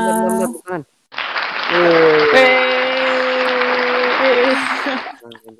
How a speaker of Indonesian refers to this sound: Yoi, keren kan? Ada tepuk tangan tuh. Eh tadi kedengeran kan tepuk tangannya? Kedengeran, kedengeran.